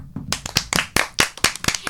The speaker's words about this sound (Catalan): Així que, un aplaudiment absolut.